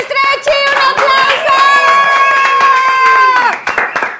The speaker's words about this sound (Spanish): ¡Un aplauso!